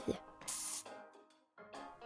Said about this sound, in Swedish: han klippte och klippte och när han var klar sprayade han på lite hårspray.